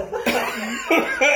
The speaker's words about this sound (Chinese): 还有不行，不行，咳嗽。